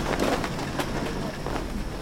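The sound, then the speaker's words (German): A small, oily diesel motor draisine with two people aboard starts off along narrow rail tracks beside an airport, two hours before the first regular run; its engine drone rumbles steadily, mixed with rattling clatter and faint knocks over two continuous seconds. “gleich neben dem Flughafen, klettern die beiden auf eine ölige Motordreisine, werfen den Diesel an und knattern einmal die Strecke entlang.”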